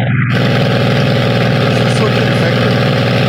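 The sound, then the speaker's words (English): An airplane engine drones steadily and loudly, a low, constant rumble with a vibrating hum running unchanged for a few seconds. “where is this plane from? This is not Red Baron stuff, right?”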